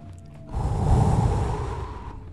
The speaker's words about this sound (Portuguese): a respiração completa, consiste em encher o abdômen de ar, usar todo o seu corpo para a respiração, o abdômen e o peito.